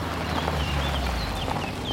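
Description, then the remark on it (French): Horses ridden by riders clip-clop their hooves at a steady walking pace on the road, over a low outdoor rumble with faint bird chirps above. “Là, regardez, des cavaliers Waouh, ils sont trop beaux ces chevaux.”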